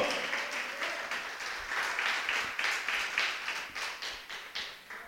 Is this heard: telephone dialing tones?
no